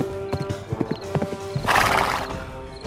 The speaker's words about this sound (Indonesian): Pangeran Jati segera memacu kudanya menuju hutan.